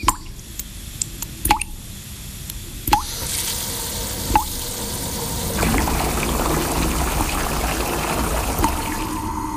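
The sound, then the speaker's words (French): Water drips from a leak, a few distinct plopping drops at irregular intervals, then a steadier trickling sound takes over toward the end. No one speaks. “Ces petits bruits qui coûtent cher à la planète.”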